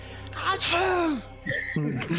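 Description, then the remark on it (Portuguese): A person mimics a sneeze with their voice, a rising breathy intake and a loud, voiced burst, followed by a couple of short vocal sounds, clear. “Dá um espirro assim.”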